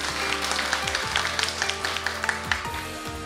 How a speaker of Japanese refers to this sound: 今日はマーチャントバンカーズのことがよくわかりましたどうもありがとうございました盛大な拍手をお願いいたします